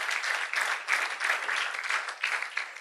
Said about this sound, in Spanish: Denle fuerte aplauso al Señor por ello, hermanos. Maravilloso es, hermano.